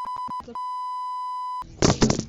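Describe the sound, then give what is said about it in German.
Three quick electronic beeps, then one long steady beep lasting about a second, all clear. A short burst of rough, noisy sound follows right after. “Das ist nur Gepiepe.”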